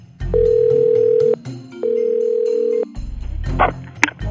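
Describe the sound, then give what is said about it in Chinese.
A telephone line tone in a Sherlock Holmes audio drama, for a call placed from a nearby post office, sounds as two long, steady mid-pitched beeps, each about a second, separated by a short pause, followed by a few brief clicks and rattles as the call connects. “摩斯从附近的邮局打电话给葛宗伯爵夫人。”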